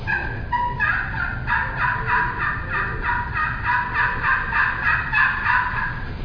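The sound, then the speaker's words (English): A slate turkey call, held like a pencil and worked in small circles, scratches out a run of raspy, high yelps, repeated in a steady rhythm over a low rumbling background, with no talking. “have you ever used a slate file like this before?”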